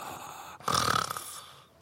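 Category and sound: vocal imitation, voice imitating snoring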